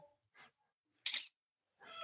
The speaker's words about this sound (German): Hört ihr meine Katze gerade?